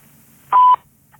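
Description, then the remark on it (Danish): A single short, steady electronic beep at a clear mid pitch, loud, sounding alone against a quiet background: the voicemail tone after a Danish greeting asking the caller to leave a message. “Venligst indtale en besked efter biptonen.”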